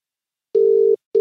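A telephone ringback tone while calling a woman: a steady mid-pitched electronic hum sounds for about 0.4 seconds, falls silent, then starts again, with no voices present.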